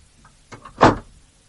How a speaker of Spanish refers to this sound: Luego cierra la puerta de su camerino y el mago regresa al suyo.